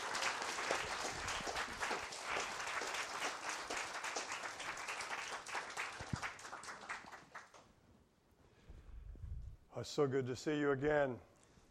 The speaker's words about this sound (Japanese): まあ、拍手を持って講談にお招きしたいと思います。